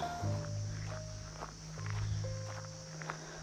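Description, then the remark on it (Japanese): Steady footsteps crunch along a mountain trail toward a waterfall at a walking pace, over a constant low droning hum and faint background tones. “出会った人たちをうん思い返して一歩一歩進んでいきます”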